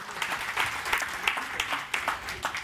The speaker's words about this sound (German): die vielen Bauhelfer, die vielen Muffinbäcker, alle, die vorbereitet, nachbereitet haben, das Team vom Sonntag. Ähm, der Applaus gehört euch. Vielen, vielen Dank, dass ihr das möglich macht für unsere nächste Generation.